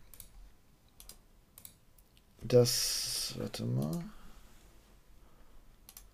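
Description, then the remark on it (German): Sparse, soft clicks of a computer mouse and keyboard tap at irregular intervals as someone does research on a computer, briefly interrupted by a burst of someone speaking in the middle. “Ich klicke mich hier auch gerade rein,”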